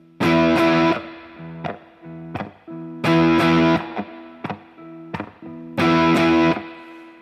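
A crunchy overdriven electric guitar, played through the More Drive channel of a Fender amp with the gain still well below halfway, plays a repeating riff: bursts of thick distorted chords alternating with short single-note stabs, the pattern cycling three times with no voices.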